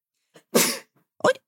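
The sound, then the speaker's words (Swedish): A short intake of breath followed by a loud, explosive sneeze, then a brief second burst of breathy noise a moment later. “Prosit!”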